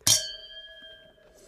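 Two glasses of dry 2021 organic, vegan white wine clink together once in a toast, a crisp strike followed by a bright, pure ring that lingers and slowly fades over about a second.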